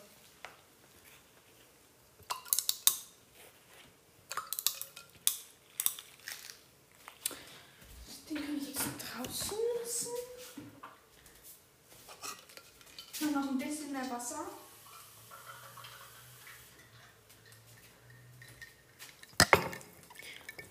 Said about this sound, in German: Ich habe noch mehr, aber nicht wundern, das sind die Eiswürfel, die zerplatzen im Wasser.